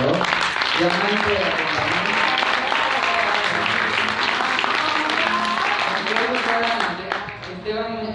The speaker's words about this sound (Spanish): darle un fuerte aplauso